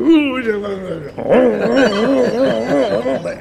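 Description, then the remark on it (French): A voice imitates radio jamming noise: a warbling, wavering tone that first slides downward, then rises and falls in a rapid repeating wobble for a few seconds, fairly loud. “emlékszik ezekre a izékre, ezekre a zavaró izékre?”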